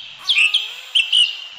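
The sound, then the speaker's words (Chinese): Birds chirping in a forest, with two quick bursts of bright, high tweets separated by a short pause over a soft, steady background hiss. No one speaks. “这是森林的声音”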